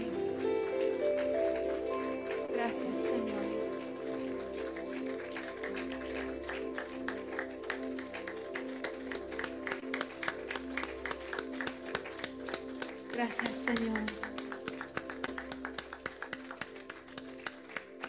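audience applauding

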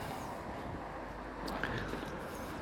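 motorcycles passing by loudly

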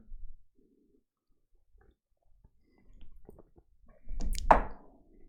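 sipping coffee

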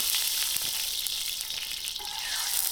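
food sizzling

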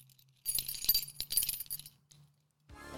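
keys jangling

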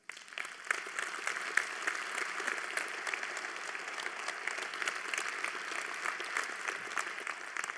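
audience applause and clapping

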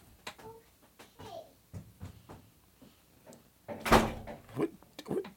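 door being closed

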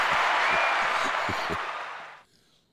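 audience applause

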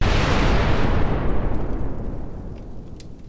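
fireball explosion sound effect

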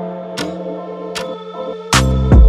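clock ticking

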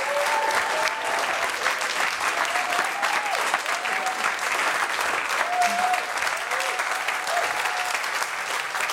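applause

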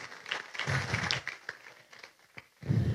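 audience applause

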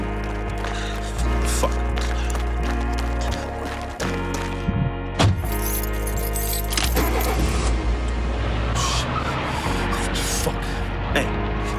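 car

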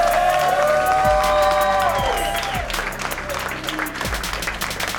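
audience applause and cheering

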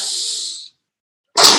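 sneeze

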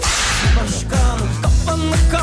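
whip crack sound effect

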